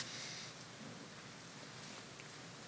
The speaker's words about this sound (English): So i love to hear those pages turning, those tablets tapping, the thumbs on our, on our phone, quickly getting to James chapter 1